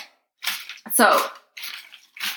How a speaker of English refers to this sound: that sound is me mixing up the questions. Yeah, not her drinking again. No. Because her slurp sounds different than her mixing.